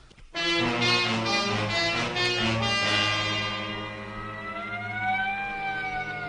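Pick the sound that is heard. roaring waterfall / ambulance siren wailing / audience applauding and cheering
ambulance siren wailing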